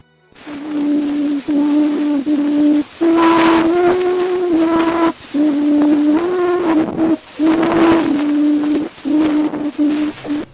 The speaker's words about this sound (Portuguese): é o registro que foi feito graficamente e convertido em som de novo.